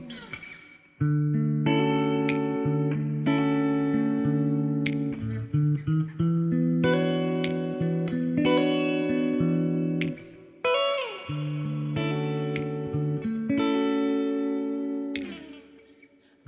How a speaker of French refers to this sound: On écoute un petit extrait du salon live session